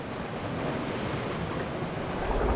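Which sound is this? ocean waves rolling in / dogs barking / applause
ocean waves rolling in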